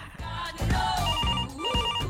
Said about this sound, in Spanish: teléfono